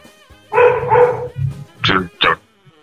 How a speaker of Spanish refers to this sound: Me está ladrando el perro.